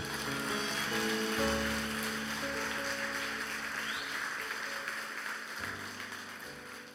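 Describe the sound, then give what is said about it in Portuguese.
A church audience applauds the Lord loudly and steadily, a dense wash of clapping that holds for about seven seconds, with sustained low musical tones humming underneath. “Aplauda o Senhor mesmo.”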